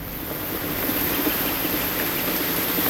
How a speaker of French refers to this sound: Tiens, là la pluie.